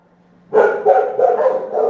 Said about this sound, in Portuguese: É isso que dá ter um canil em casa, parabéns. 5 mil cachorro, mais os da rua.